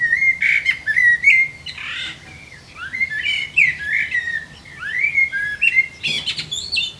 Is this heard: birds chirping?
yes